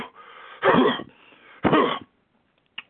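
Two loud, forceful coughs, delivered deliberately as a demonstration of a healthy cough, with a breathy exhale before and between them and a tiny click at the end.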